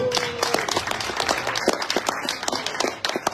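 An audience applauds guests being introduced, many hands clapping in a dense, continuous patter that holds its volume for a few seconds before easing slightly at the end.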